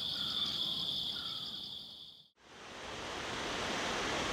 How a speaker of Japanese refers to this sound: 今朝は富山の名瀑称明滝の豪快な音色